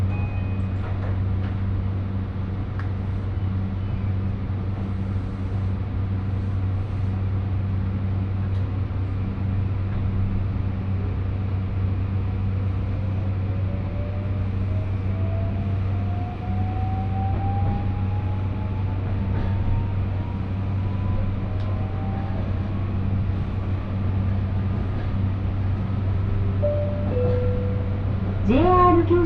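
Steady low rumble inside the carriage of a one-man train bound for Yatsushiro on the Kagoshima Main Line between Omuta and Kami-Kumamoto, next stop Ueki, with a faint electric motor whine that gradually rises in pitch as the train picks up speed. No one speaks.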